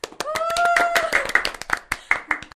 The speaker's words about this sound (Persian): پس اگه اینطوری یک کف مرتب برای خودمون بزنیم همراه با جیغ و هورا و سایر مخلفات